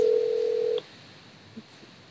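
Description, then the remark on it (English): An outgoing phone call's ringing tone, from a call made on a phone during a Facebook live stream: a single steady, fairly loud electronic tone lasting under a second, then cutting off into quiet line hiss with no talking. “Can you hear the ringing? Yeah, I hear it ringing.”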